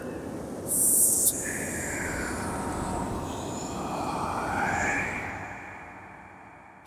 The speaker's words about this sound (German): Das Brausen des Sandsturms erstickt jeden Ruf.